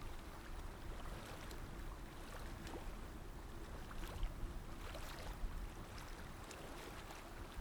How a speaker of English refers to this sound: And as you're feeling that breath like an ocean wave, you begin to hear it in your ears. Those waves crashing to the shore and then receding out.